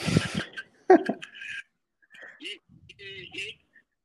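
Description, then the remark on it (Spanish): A dog lets out several short whines and yelps, high and nasal, with a brief rustle and breathy noise at the start. “Ya le corría al perro.”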